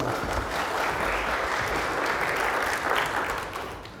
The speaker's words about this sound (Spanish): Un aplauso para los hermanos.